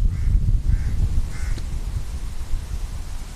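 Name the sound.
crows cawing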